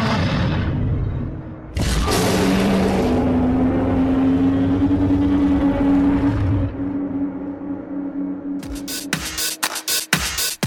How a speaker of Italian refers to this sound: Mentre la vicina di casa passa l'aspirapolvere che emette un verso simile a quello di un drago,